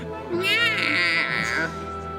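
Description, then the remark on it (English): A person does a drawn-out, wavering meow imitation lasting over a second, pitched high and nasal like a cat, loud against a faint steady background. “Oh my God! It's the cat people.”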